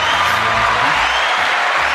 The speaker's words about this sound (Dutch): Applaus. Oh, wauw. Ja. ja, speciaal omdat jij dat zo graag ja, wil. Cool, man. Een applausje erbij.